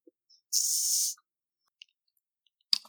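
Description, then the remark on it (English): A can or bottle of Two Towns cider from Corvallis, Oregon, is cracked open with a bright, fizzy hiss lasting about half a second, followed by a faint click and a brief clatter of handling. “I will do my darndest to try to get this thing open right now.”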